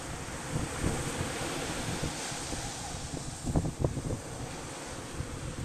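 Steady roar of ocean surf washing onto the beach at Shichirigahama, Japan, with gusty wind buffeting the microphone and a few stronger low rumbles as waves break; no one speaks.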